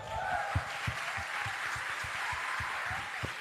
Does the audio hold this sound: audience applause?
yes